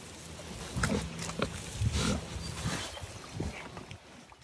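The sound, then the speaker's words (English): Six pigs raised on family farmland in southern Minnesota grunt and snort in short, irregular bursts, several overlapping, with rough low rumbles between them and no talking. “Ben and a few friends pooled their money and bought six pigs last year.”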